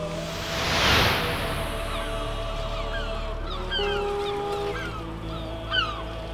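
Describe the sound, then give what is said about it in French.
A flock of seagulls squawks in scattered, overlapping cries, moving away from a seawall facing the ocean, over a steady wash of wind and surf noise with a brief louder gust near the start. “Le bourdonnement d'un groupe de mouettes moutons piaillantes s'éloigna de Zéphil qui se tenait debout sur la digue face à l'océan”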